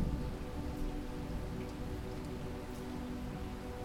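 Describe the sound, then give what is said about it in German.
Heavy rain, heard through a front door opened just a crack, pours down steadily, splashing loudly and continuously on the ground with a dense, even hiss and patter that fills everything, with no voices present. “Das laute Plätschern erfüllt die ganze Umgebung.”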